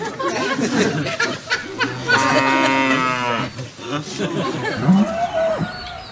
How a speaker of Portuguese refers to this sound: A vaca mais gorda lá.